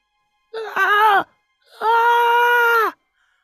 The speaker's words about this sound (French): T'accotes ton oreille sur la porte, puis t'entends des bruits en écho. Puis tu te concentres, t'as quand même l'oreille musicale, là. T'entends mm-hmm. des plaintes